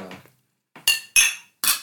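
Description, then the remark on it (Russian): Three bright, ringing clinks of wine glasses touching in a toast, evenly spaced, after a brief murmur and a moment of quiet. “Давайте за дерушку мы тогда чокнемся.”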